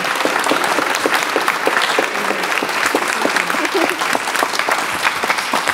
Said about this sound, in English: So, can everybody please give a round of applause to these amazing, incredible people?